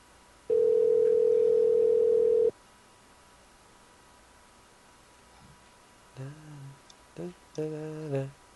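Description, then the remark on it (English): A single steady electronic ring tone sounds over a phone line for about two seconds and stops unanswered. After a quiet pause, a voicemail greeting briefly begins. “At least her cat could answer the phone.”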